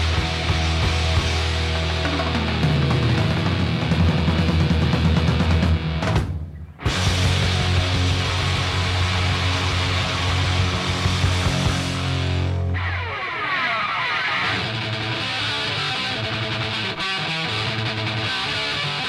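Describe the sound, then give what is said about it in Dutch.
A loud, raw heavy metal demo recording with distorted guitars and pounding drums plays continuously, briefly cutting out for a moment before the band crashes back in; no one speaks over it. “Het is van een demo. Moet even op gang komen.”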